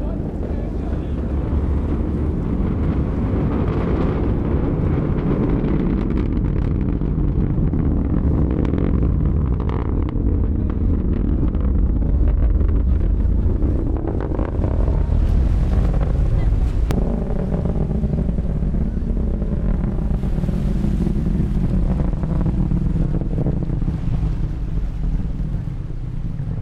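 A rocket launch's deep, continuous rumble, heard from the seashore on an overcast day as the rocket climbs into thick cloud, rolls on for the whole stretch: a heavy low roar with rough, wind-like buffeting and occasional crackling surges, never fading out.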